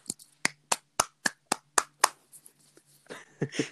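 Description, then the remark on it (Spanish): A short burst of applause welcoming a male guest on the show: about nine sharp, evenly spaced hand claps in a quick steady rhythm, then it fades into soft rustling as a voice starts to speak. “Un aplauso, por favor.”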